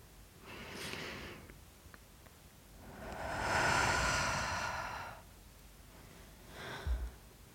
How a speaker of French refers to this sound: Si tu veux que l'on entende ta note de musique ou ta voix au loin lorsqu'il y a beaucoup de monde autour de toi, prends une profonde inspiration, gonfle ton ventre et observe-le se soulever. Souffle longtemps et doucement par la bouche.